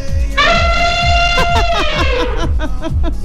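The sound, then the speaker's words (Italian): A person voices a loud, brassy imitation of an elephant trumpeting, holding one sustained blaring call for about two seconds before it breaks off, over a steady pulsing background. “Siamo stati annunciati da un elefante?”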